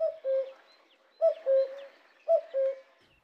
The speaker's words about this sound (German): Den Gesang des Kuckucks. Den fand der Esel nämlich ziemlich arrogant. Ständig kuckuckt er im Wald herum und meint, er hätte die richtigen Töne erfunden. Kuckuck, Kuckuck.